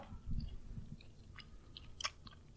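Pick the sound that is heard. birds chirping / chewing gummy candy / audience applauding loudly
chewing gummy candy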